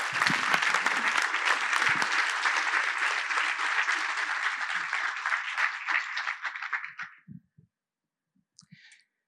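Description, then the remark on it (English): A large audience claps in a dense, sustained burst for about seven seconds, then the applause thins and fades out, leaving a few faint scattered sounds in near silence. “Can we applaud them again?”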